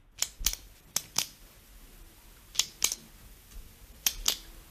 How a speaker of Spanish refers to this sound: Sí, sí, es un boli, es un clic, clic, clic del ah, boli.